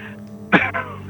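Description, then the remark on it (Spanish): A single sharp sneeze bursts out, brief and forceful, trailing off into a short breathy tail against a quiet background. “Jesús.”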